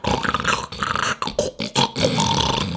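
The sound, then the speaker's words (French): Deep, rough grunting and bellowing of a hippopotamus, used as a jingle, comes in several loud bursts separated by brief gaps, with no one talking over it. “Hein, hein, le, bruit d'un hippopotame.”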